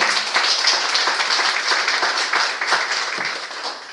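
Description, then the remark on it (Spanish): An audience applauds together as an offering of applause to the Lord, a dense, steady wash of many hands clapping at once, loud and sustained for the whole stretch without voices. “Ofrenda de palmas para el Señor.”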